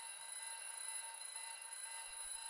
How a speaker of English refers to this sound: When you walk up the stairs, you will walk past all of the bedrooms and you will hear the alarms going off in all of them.